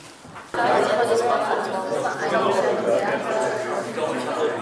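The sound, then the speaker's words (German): Audience members talking with their neighbours in twos and threes about a set of provocative theses, many overlapping voices forming a steady, lively murmur after a quiet moment, with an occasional chuckle in the mix. “In den nächsten paar Minuten tauschen Sie sich gerne mal kurz aus, bitteschön.”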